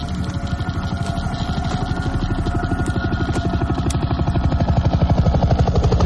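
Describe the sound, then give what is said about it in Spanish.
A helicopter's rotor chops in a fast, steady thumping rhythm with a heavy engine drone, loud and passing overhead in Pripyat, in the Chernobyl exclusion zone, growing slightly stronger toward the end. No voices. “Mira un helicóptero que pasa sobre ellos.”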